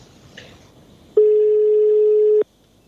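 A single steady electronic telephone ringing tone on a call that goes unanswered, a loud, flat hum-like beep lasting just over a second, heard clearly on its own through a phone line with quiet background before and after.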